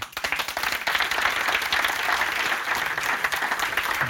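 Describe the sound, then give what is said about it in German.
Steady applause from an audience after a talk on climate change, many hands clapping in a dense, continuous patter at an even loudness for several seconds, with no voices over it. “Applaus”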